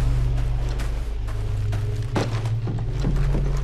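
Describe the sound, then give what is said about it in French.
A steady, low rumbling wind ambience drones on without pause across an empty video game map designed for combat. A few soft, faint knocks surface now and then, and nobody speaks. “Quand je tendais l'oreille, j'entendais le vent”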